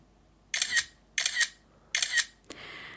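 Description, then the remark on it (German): A smartphone camera shutter sound plays three times while a photo is taken with the phone set to mute. It comes in a steady rhythm, each a bright, crisp click-burst, followed by a short higher chirp and fading hiss. No one speaks. “Ich stelle dieses Telefon mhm. ähm, auf äh, stumm. Ja, und sehr gut. Und Wenn ich ein Foto machen will, macht es trotzdem folgendes.”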